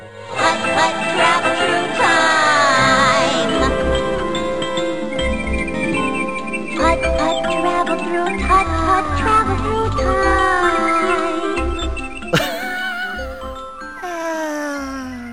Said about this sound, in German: im Startbildschirm mit der Musik schon gleich zu wissen